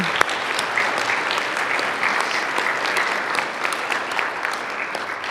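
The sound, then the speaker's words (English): A crowd claps steadily for about five seconds to welcome first- or second-time visitors, a dense, even wash of many hands with a few sharper individual claps standing out, and no voices heard. “Is there anyone that's visiting for the first or second time today who would feel brave enough to just raise your hand and let us give you some applause?”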